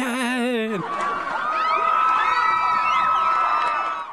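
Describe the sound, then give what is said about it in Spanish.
A single wavering, drawn-out yell opens, then a large crowd erupts into loud, continuous shouting and cheering, many voices whooping over one another at steady volume until the end. “aquí voy a meter unos gritos así de fondo de”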